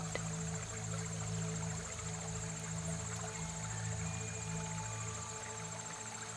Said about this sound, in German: hört dem Plätschern zu, dem schönen Lied, wo das Wasser singt.